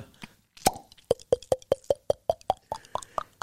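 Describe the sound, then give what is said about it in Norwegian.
Someone opens another bottle for themselves with a sharp pop, followed by a quick, steady run of hollow glugging plops that rise in pitch, clear with no talking. “Jeg tar meg en til, jeg. Ja. Jeg fikk ikke ut det. Skal, skal, jeg hjelpe deg?”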